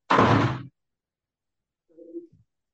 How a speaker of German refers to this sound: Oder du musst die Tür zu machen. Ja? Dann mach ich die Tür zu, okay? Oder machst du sie zu?